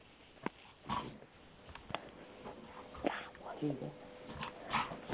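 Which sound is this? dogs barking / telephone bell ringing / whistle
dogs barking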